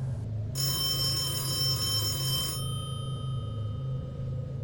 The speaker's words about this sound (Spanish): En la madrugada sonó el teléfono, un viejo teléfono de casa que mi mamá se rehúsa a tirar aunque nunca lo usamos como ya nadie los usa.